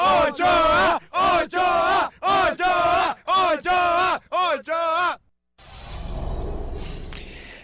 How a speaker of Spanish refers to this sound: Señores, un grito de aliento para su gente que está en México.